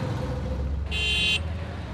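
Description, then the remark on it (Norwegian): Steady rumble of busy road traffic in New Delhi, India, heard from an auto rickshaw, with a single bright car horn honk sounding for about half a second in the middle. “We're in an auto rickshaw right in New Delhi, India, measuring air pollution exposure levels in traffic.”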